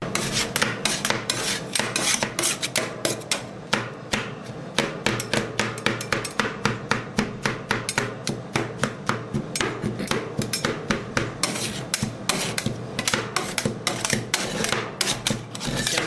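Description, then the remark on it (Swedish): A wooden pallet is being broken apart, with a dense, steady run of sharp hammering knocks and scraping wood rasps that continue for the whole stretch, loud and unaccompanied by voices. “En snubbe som har sönder en pall.”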